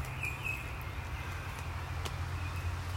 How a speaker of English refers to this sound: It's Wednesday, the 25th of August, 6:19 a.m. Listen to those birds. Listen to that traffic.